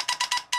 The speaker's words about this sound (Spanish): Señoras y señores, ese es el sonido de noticia acabada de recibir.